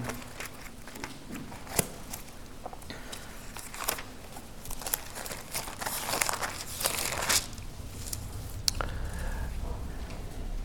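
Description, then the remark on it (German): Pages of a book being leafed through to find a passage in 1 Corinthians, a steady run of paper rustles and soft flicks over about ten seconds, with no one speaking. “Moment, gerade blättern.”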